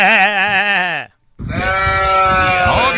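Two loud, close goat bleats with a quavering, wavering tone: a shorter call, a brief pause, then a longer, raspier bleat that trails on to the end.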